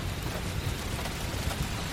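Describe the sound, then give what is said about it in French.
A dense, steady roar of heavy cyclone rain pours down without pause, backed by a deep low rumble that suggests thunder. No voices are heard. “La pluie est arrivée et elle n'est pas seule. Avec elle, les éclairs, les orages, mais surtout le vent.”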